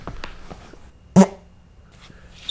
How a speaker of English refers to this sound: the first official fart directly into a microphone on any podcast that I've ever heard